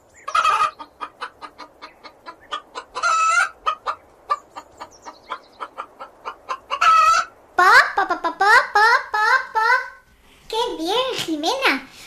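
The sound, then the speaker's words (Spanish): A voice imitates a hen, starting with a quick run of short, rhythmic clucks, then breaking into louder, wavering squawks. “Allí hay ovejas, cerdos, incluso gallinas como tú.”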